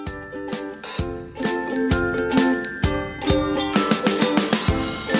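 A short, bright instrumental music jingle plays on its own, with sustained melodic tones over a steady rhythmic beat at a moderate, even volume.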